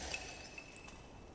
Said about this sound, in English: And he goes walking over and as he and as he does, you hear a little tink tink and then a crack and the pot just shatters